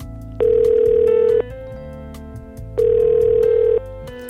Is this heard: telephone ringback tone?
yes